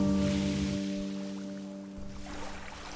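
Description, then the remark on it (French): Water laps and sloshes against a wooden boat hull floating on misty Ha Long Bay, with a steady low engine drone humming underneath and a soft fizzing of foam as the wake stretches toward the end. No one speaks. “Plus tard, en flottant sur la baie d'Along, parcourue de brumes comme un voile de fantôme, je pensais, hormis les flottements d'eau contre la coque en bois et le pétillement de la mousse quand le remous s'étire, le capter enfin.”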